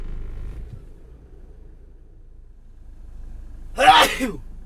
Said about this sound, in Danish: Ej, nu begynder også at nys.